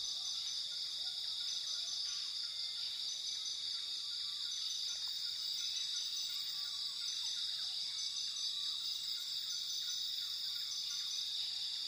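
Steady rainforest ambience dominated by a dense, continuous high-pitched insect drone, with faint scattered bird chirps in the background and no voices.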